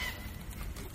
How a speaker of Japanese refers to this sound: 鳥が鳴いてます今の僕たちはですねあの琵琶湖のほとりにあるあのいわゆる湖西って言われるあの琵琶湖のあの地図でいうと上上上西側や西側や西側に西側、えー、のほとりにあるですね J ホッパーズっていううなんかなんていうんですかね